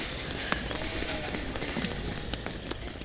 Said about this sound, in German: Will das scheppern gerade? Das war eine der Ziegen, die ihren, äh, ihren Bauch am, äh, äh am Zaun gerieben hat.